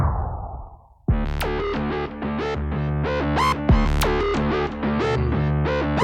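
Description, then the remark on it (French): A synthesizer keyboard with a sequencer and pitch and modulation wheels plays a bright, buzzy sequence of rapid notes with rich harmonics and a few pitch-bent swoops, loud and steady after a short hissy lead-in, with no one talking over it. “Donc euh, bah, là, on a à notre disposition un synthétiseur comme celui-ci. Allez, on l'écoute, hein, tant qu'à faire.”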